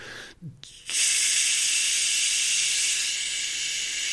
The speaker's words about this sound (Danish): der er noget, der hedder umjai-lyd, hvor du ånder ud med, mm, bruger du næsen, og du laver den her m-lyd her.